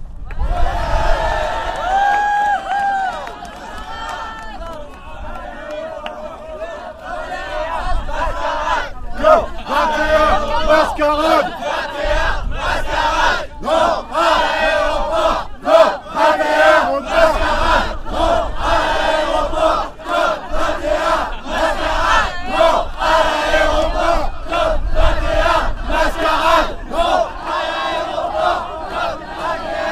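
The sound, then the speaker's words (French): A large crowd of protesters shouts slogans in unison against an airport and COP21, the chant building after a few seconds into loud, rhythmic repeated bursts of many voices over a continuous roar of background noise. “Fine équipe et si multiples qui déchangent jusqu'au palais merveilleusement à guider, écouter, respecter, encourager tous ceux qui sont montés, crier non à l'aéroport COP21 mascarade.”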